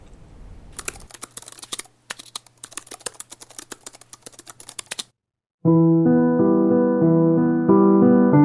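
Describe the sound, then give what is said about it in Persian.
Quick, irregular clatter of laptop keys being typed for about four seconds, with a brief pause, then the typing stops and steady tonal music starts playing from the laptop. “بذار الان لپتاپ آتیش میکنم ما هم گوش کنیم”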